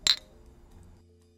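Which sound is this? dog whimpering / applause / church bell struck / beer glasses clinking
beer glasses clinking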